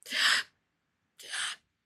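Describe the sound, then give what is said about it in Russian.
A person demonstrates the labored breathing of someone on an oxygen concentrator: two loud, short, breathy gasps about a second apart, with silence between them. “Ну, как бы, то есть они у тебя очень часто, они очень громкие, потому что тебе буквально нечем дышать.”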